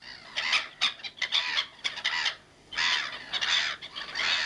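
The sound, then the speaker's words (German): Black-headed gulls call with harsh, raucous cries in a fast, overlapping series of squawks and cackles, fairly loud, with no one speaking. “Ah, das sind Möwen. Ja, richtig. Lachmöwen.”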